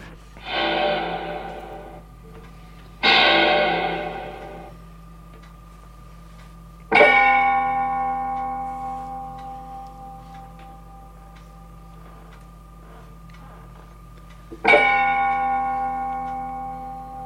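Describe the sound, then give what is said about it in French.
A sequence of isolated concrete sound samples: two short, noisy hissing bursts, then two loud, resonant bell-like struck tones that ring out slowly, each separated by pauses, with no talking. “vous allez entendre à la suite les uns des autres des matériaux”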